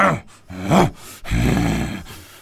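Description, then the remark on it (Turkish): A voice imitates a lion angry at its own reflection in the water, with a short growling snarl followed by a longer, loud roar. The sound is rough, strained and forceful, with no words spoken. “Aslan fena halde kızmış.”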